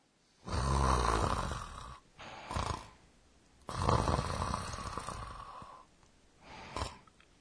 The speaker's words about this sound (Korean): 코 고는 소리네요. 네, 의성어로 표현하면 이렇게 됩니다. 그그는 깊이 잠이 든 모습을 나타냅니다.